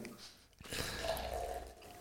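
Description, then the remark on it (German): A drink is poured from a bottle into a glass: after a short pause, a steady, moderately loud splashing stream runs for over a second, with a faint tone rising as the glass fills. “Soll ich dir das ganz voll schütten?”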